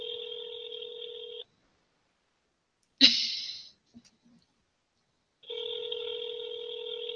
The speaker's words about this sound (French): Évidemment, ça va se mettre à sonner. Il y a beaucoup de sonneries parce que mon téléphone prend beaucoup de temps avant de sonner.